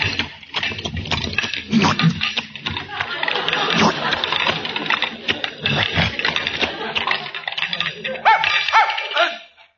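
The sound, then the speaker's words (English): A dog, called a puppy, yaps and barks in short bursts over a busy, noisy background, with voices mixed in throughout the scene. “In uh, look, look in there, puppy.”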